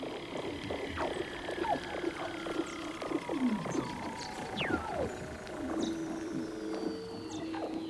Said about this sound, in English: And now, let's listen to this great looking critter called a Weddell seal. This recording, by the way, was made by Doug Quinn.